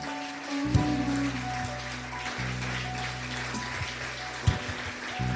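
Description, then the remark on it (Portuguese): An audience at a church service applauds the Lord for a sister's life in a dense, continuous patter of clapping that lasts the whole stretch, over a low steady droning tone, with a couple of brief louder thumps. “Vamos aplaudir ao Senhor pela vida da irmã”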